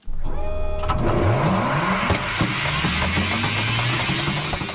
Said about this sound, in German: So könnte sich die Zukunft anhören. Denn so klingt ein Hyperloop, eine Kapsel, die durch eine Vakuumröhre rast. Fast mit Schallgeschwindigkeit soll sie Menschen von A nach B bringen.